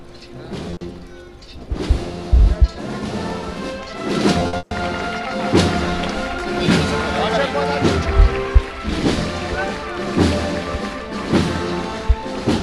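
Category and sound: crowd, applause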